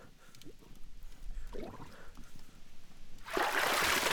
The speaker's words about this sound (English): Brutish, demonic, the ooze horse rockets from the water with none of the elegance of the octopus hounds. The water rises with it, a dark brown cloak, flowing and flooding and washing out everything below fire, food, weapons.